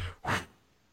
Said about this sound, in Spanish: ¿Por qué respiras en el micrófono? ¿Quién está respirando?